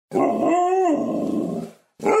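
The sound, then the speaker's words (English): A dog lets out a long, loud vocalization that mixes a growl with a drawn-out bark, then after a short pause starts another bark. No one speaks. “Turn your dog's life around and make him or her a happy camper. Ain't that right, boy?”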